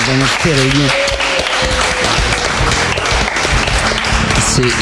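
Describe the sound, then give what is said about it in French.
Steady crowd applause at a live band performance for a guitarist, a dense wash of many hands clapping, with a few cheers and voices calling out over it. “… aussi à la guitare. Voilà, qu'on applaudit, ouais, parce que les deux guitares, elles sont vraiment géniales, Bravo.”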